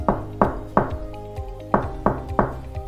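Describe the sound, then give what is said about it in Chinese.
A little sheep knocks on Santa Claus's door: two groups of three sharp, hollow raps with a short pause between, over a soft sustained musical tone. “谁在敲门啊？”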